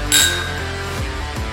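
household object, glasses clinking

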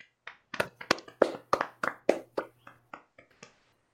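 crowd, hand clapping

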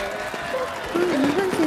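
crowd, applause

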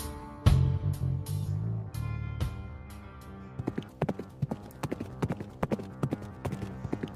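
animal, horse hooves clip-clopping

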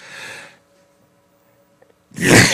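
human body sound, a person sneezing

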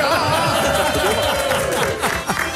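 crowd, audience applause

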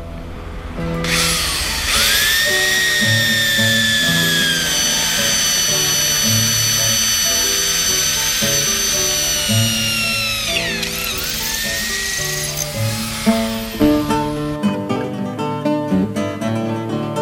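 tool, power drill drilling

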